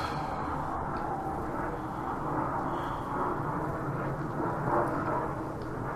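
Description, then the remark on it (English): A steady, broad low roar of an airplane passing overhead fills the whole stretch, holding a fairly even loudness with slight swells and no voices. “God damn it, plane.”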